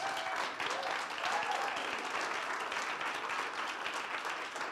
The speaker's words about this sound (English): Can we just clap for Preston?